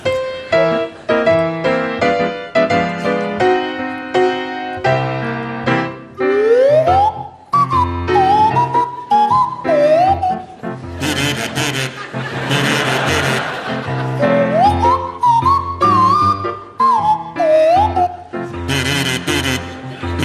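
A buzzy kazoo plays a bouncy melody, joined by a swanee whistle whose pitch swoops and slides up and down, with bursts of audience noise between phrases.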